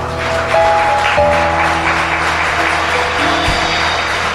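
A church audience breaks into sustained applause for God during a service, dense clapping filling the whole span at a steady, loud level, with a low musical drone and held tones sounding underneath.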